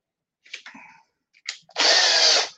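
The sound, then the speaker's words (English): A few brief clicks and clatters, then a power drill revs up, whirring loudly and steadily for just under a second before winding down. “So, oh, drill, drill's over here.”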